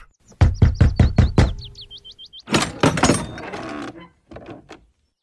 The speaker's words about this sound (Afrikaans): Maar toe hoor hulle 'n klop aan die deur.